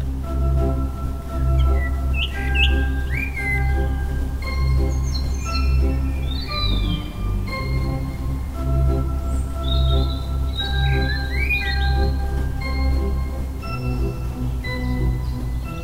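A blackbird and a robin sing together, clear whistled phrases, thin trills and the blackbird's gurgling notes overlapping above a steady low rumble, with no one talking.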